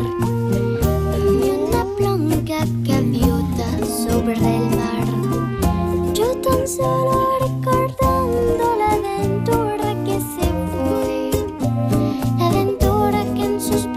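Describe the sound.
A group of children sings a slow, lilting bolero over steady instrumental accompaniment, the melody flowing continuously at a moderate, even loudness from start to finish.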